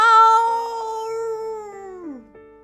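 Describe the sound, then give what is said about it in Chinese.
A person voices a tyrannosaurus roar: one long, loud, tonal howl held at a steady pitch for about two seconds before sliding downward and trailing off. “霸王龙大声的吼叫，但是薄片龙没有出来。”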